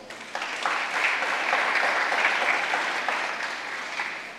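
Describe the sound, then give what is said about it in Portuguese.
An audience, standing, applauds the Lord steadily, a dense wash of many hands clapping at once, sustained and fairly loud for several seconds without any talking over it. “Quem está aqui, diga glória a Deus, fique de pé, dá um aplauso ao Senhor.”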